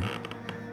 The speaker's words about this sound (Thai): ผมต้องซ่อนตัวให้มิดชิดเพื่อไม่ให้มันหาเจอเพราะเสียงดังแกรกกรากจากมันกำลังใกล้เข้ามา เสียงออดแอดจากบันไดไม้ลั่น